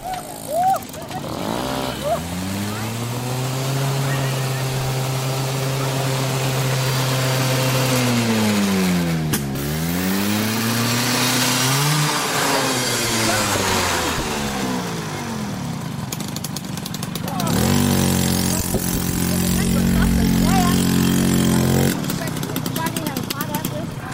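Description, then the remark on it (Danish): A moped engine revs hard at full throttle after its rider loses control and falls over, its pitch climbing and dipping in repeated surges before settling into a loud, sustained high-throttle whine. “Men pludselig er der en, der mister kontrollen over sin knallert.”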